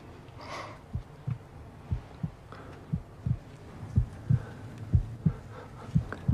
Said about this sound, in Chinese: 你心跳有点快，不会出什么事儿吧？